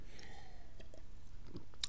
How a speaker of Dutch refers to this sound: even een slokje water.